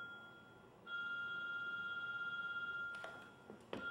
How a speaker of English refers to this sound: Here's somebody's cell phone this time.